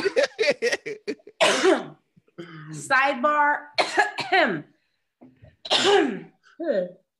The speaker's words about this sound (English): I'm sorry, the weed is c- catching me up. Let me cough. Excuse me.